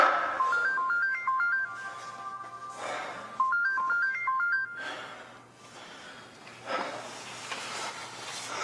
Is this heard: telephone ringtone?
yes